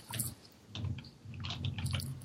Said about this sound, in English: No, I'm just I'm just typing something real quick.